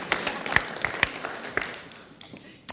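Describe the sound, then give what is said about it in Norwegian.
A small burst of audience applause during a sermon, with scattered sharp hand claps over a soft wash of clapping that thins out and fades, then one last clap at the end. “Jeg sa det slik at jeg skulle få en ordentlig klapp.”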